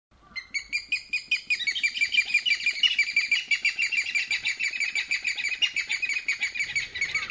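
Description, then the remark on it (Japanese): An Okinawa rail (yanbaru kuina) calls loudly, a rapid, continuous series of harsh repeated 'kyo-kyo-kyo' notes that runs for several seconds with no talking. “えー、正解はですね、これ、ヤンバルクイナの鳴き声ですよね。”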